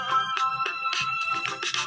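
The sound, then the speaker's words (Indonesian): A mobile phone ringtone plays during a test of the phone, a bright electronic melody, a quick run of repeated tonal notes at a steady, moderate volume, with no voices over it. “Saya tes HP dulu soalnya HP-nya baterainya tinggal”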